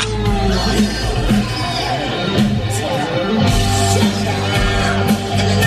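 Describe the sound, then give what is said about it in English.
Loud, compressed live rock music fills the whole stretch, with a full band, steady drums and crowd yells mixed in, sounding distorted and thin, as if captured on a phone at a concert. “This sounds like it's off a phone.”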